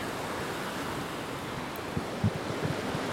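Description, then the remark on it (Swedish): A steady, dense roar of rushing water from the Njupeskär waterfall fills the scene, heard close by, with a few dull low bumps near the end and no voices. “Nu är vi alla samlade vid vattenfallet.”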